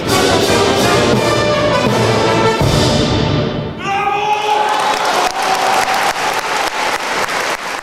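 Loud, sustained applause from a large concert audience in Vienna for the Gewandhausorchester after the final chord of Mahler's Fifth Symphony, dense and continuous clapping with a wash of crowd noise and occasional cheers throughout.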